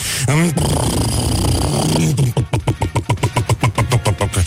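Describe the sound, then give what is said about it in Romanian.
A voice mimics the speaker's own motorcycle starting up: a rising rev, a sustained buzzing growl, then a rapid rhythmic putter like an idling engine, loud with no other talk. “Clar, sunetul motocicletei mele, clar. Și cum face când pornește?”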